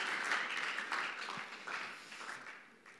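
A crowd applauds steadily for a few seconds as a volunteer is called onto the stage, a dense wash of many hands clapping that holds fairly loud and then slowly thins toward the end.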